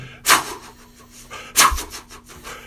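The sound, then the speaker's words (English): A voice imitates a lawn sprinkler going off at 1 a.m. in a park on Douglas and St. Francis, two breathy, hissing bursts about a second apart, each a harsh spray of noise that quickly fades, with no spoken words. “and then I'm getting drenched by sprinklers.”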